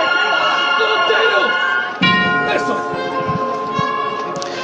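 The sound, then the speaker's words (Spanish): A tubular bell rings with bright, sustained overlapping tones during a Palm Sunday procession at quarter to two in the afternoon, as the misterio float changes to a sideways costero step. It is struck again partway through, so the ringing swells anew, with a busy background of music and voices underneath. “Coincidiendo con la campana tubular, el cambio de paso a costero Siempre un poquito de frente.”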